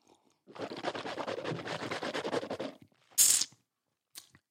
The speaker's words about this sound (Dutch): Ondertussen neem ik even een slokje, want tering.